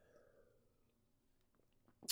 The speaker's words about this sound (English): You just guys get to listen to me drink a sip of water here.